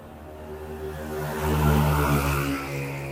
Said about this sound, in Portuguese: Esses barulhinhos dessas motos, né? Misericórdia.